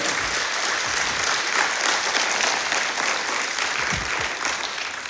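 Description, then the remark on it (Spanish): An audience breaks into sustained applause for Christ, a dense, steady wash of clapping hands that holds at an even, loud level throughout, with no voices standing out. “Le damos un aplauso a ese Cristo que nos restaura.”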